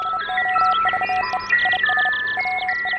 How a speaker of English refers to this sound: Not all the messages are delivered with the human voice. Philosopher Bertrand Russell's famous quote, Love is wise, hatred is foolish, is rendered in Morse code